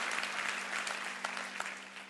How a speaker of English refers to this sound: Let's clap our hands and say yes, yes, yes about all that.